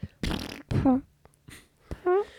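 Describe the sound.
A voice imitates fart noises with the mouth: a sputtering, buzzy raspberry followed by a couple of shorter, tonal blurts, fairly loud with brief pauses between them.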